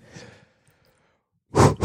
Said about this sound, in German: nicht so schwer atmen.